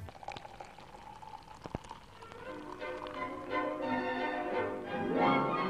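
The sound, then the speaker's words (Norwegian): Beer pours into a glass with a steady gurgling splash, a few sharp clicks first, then a bubbling stream whose tone rises as the glass fills, growing louder toward the end. “Øl hører til.”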